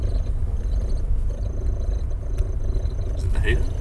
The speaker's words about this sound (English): Andrew was referring to the noise that was coming out of the car's air vents